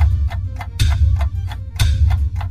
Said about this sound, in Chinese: 好的，坎坎坷坷的做出来后是一回事，弹珠呢能不能顺利的从起点到终点，这才是重点。来听听这个声音，启动仪式开始了。